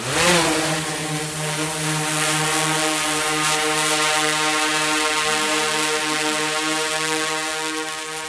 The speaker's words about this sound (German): Und so klingt er, der wichtigste technische Helfer der Wildtierretter, eine Drohne.